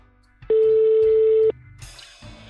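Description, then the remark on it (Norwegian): A single steady telephone ringing tone holds for about a second at moderate loudness, followed by quieter background noise and a faint connection click. “For å forstå mer av dette, tar vi en telefon”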